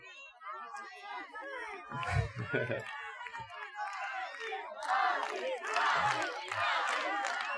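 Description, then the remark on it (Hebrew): A live audience of hundreds of people in front of a stage shouts and cheers together, a dense roar of many voices that swells louder in the second half, with a few low thumps partway through. “אני עומד כאן על במה מול מאות אנשים מדהימים שאתם,”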